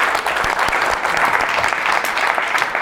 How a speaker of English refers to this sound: Let's give Sebastian a round of applause.